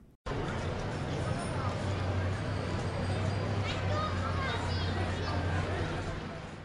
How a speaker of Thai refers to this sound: สียงเจียวจ้านี้เป็นเสียงของแก๊งจักรยานเด็กๆนะคะ หลายคนเห็นอาจจะนึกว่า เฮ้ยนี่มันเกิดอะไรขึ้น นี่มันคืองานเทศกาลอะไรหรือเปล่า ไม่ใช่เลยค่ะ นี่มันคือแก๊งนักปั่นจักรยานที่จะมุ่งหน้าไปสู่โรงเรียนนั่นเอง เด็กๆเนี่ยออกมาปั่นจักรยานกันเยอะมากเลยนะ